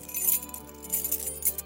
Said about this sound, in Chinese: 接着，蓝胡子拿出一大串钥匙。